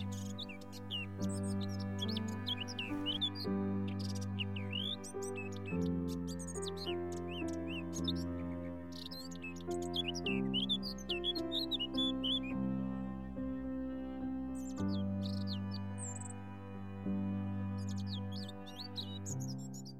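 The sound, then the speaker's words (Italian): Swallows chirp and twitter in quick, scattered bursts, clear, layered over a steady, soft instrumental music bed throughout. No one speaks. “da bambina, come sempre, rivolgo il mio sguardo trepidante all'insù, aspettando le rondini rondini che simboleggiano pace e libertà, rondini gialle e blu, rondini di tutti i colori del mondo.”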